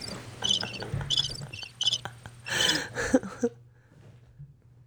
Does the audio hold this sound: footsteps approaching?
no